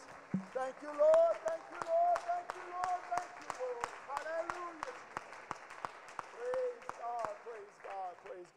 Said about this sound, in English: Would you clap your hands and give the Lord glory right now and give him praise?